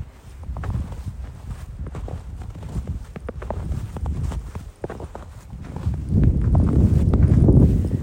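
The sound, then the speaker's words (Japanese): Steady footsteps crunching and squeaking through deep fresh snow outdoors during a heavy blizzard on January 18, with snow about twice as deep as the day before; a regular rhythm of soft compressed steps, with a louder, rushing wind-like rumble building over the last couple of seconds. “このあの足元な雪を踏む音聞いてみてください。”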